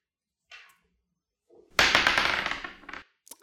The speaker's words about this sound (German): Du hast gesehen, ich habe hier einen Würfel. Mhm. Äh, da darfst du noch einmal würfeln und für jede Zahl habe ich eine spezielle Frage.